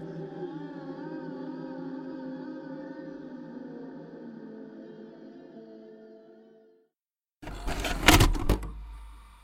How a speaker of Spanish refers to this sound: De vez en cuando durante las noches, escuchaba cómo se abría y cerraba la puerta principal de la casa.